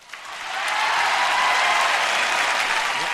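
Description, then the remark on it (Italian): Canned audience applause swells in within the first half second, then holds as a dense, steady roar of many clapping hands, like a large crowd, with no voices over it. “Eh, volevo ah, fare un applauso anche finto, Vuoi quelli del pubblico, grazie.”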